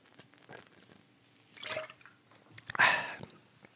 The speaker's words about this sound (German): Aber ich muss ganz kurz einen Schluck trinken, sorry, Leute.